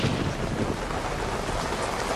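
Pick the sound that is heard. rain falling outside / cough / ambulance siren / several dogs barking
rain falling outside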